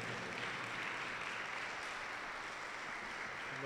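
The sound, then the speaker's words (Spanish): Sustained audience applause given to the Lord, a dense, steady wash of many hands clapping at an even level throughout, with no pauses and no voices standing out above it. “Denle un aplauso, fuerte, fuerte al Señor.”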